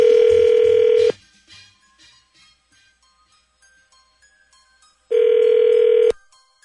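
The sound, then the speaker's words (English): A telephone rings on the line: two long, steady buzzing ring tones about four seconds apart, with faint short dialing beeps in the quiet gap between them. No one speaks. “So we're going to call Brooke then when we come back next.”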